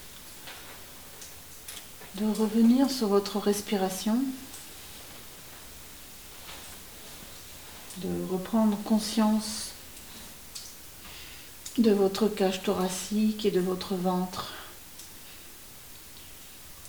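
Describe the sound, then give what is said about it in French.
Water drops fall inside a cave, faint irregular drips ticking softly in a hushed, echoing space while a calm voice speaks in three unhurried passages over them. “Et puis je vais vous inviter à sortir de vous-même pour écouter de nouveau les bruits extérieurs, les gouttes d'eau qui tombent.”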